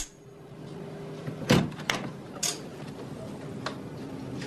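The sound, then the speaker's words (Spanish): A door of a house is opened at night: a thud and sharp latch clicks in quick succession, then a softer knock of the door swinging, over a quiet hum. “abre la puerta.”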